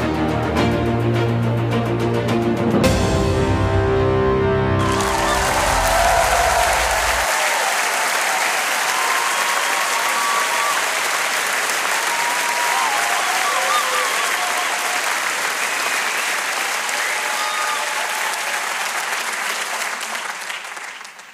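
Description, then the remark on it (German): A brief burst of music gives way to loud, sustained audience applause at the final of WhatsApp Sucht den Superstar 2021, for all who reached the final. It is a dense, steady clatter of many hands that continues for about fifteen seconds before easing slightly at the end. “Dieser Applaus ist für alle, die es dieses Jahr bei WhatsApp Sucht den Superstar hierher geschafft haben, bis ins Finale.”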